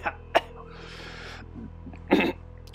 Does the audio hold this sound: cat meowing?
no